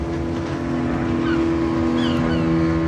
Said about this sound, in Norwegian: Med masse poengsmotor. Og det er jo disse dronene, ubemannede flyene som flyr over hele tiden. Og den lyden den hørte vi jo allerede på grensen da vi sto i Egypt. Og den hørte vi altså natt og dag til vi var ute.